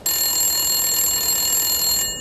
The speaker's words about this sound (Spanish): Y entonces, pues bueno, lo más particular que, pasó fue que un día sonó el teléfono a eso como de las 5 de la mañana.